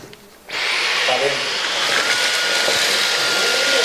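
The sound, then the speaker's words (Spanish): A small handheld high-tech gadget vacuum switches on abruptly after a brief quiet moment and runs with a steady high-pitched whine and airy hiss, loud, continuing without pause. “No pasa nada, señora, señorita, porque usted tiene aquí esta aspiradora, esta aspiradora mágica, esta aspiradora de con alta tecnología.”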